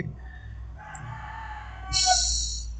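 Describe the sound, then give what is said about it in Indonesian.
A rooster crows a single drawn-out cock-a-doodle-doo, starting moderately and swelling louder and brighter toward the end, with no talking over it. “Kalian tahu ini ayam-ayam di sini. Itu bukan aja cuma berkokok jam 6 pagi”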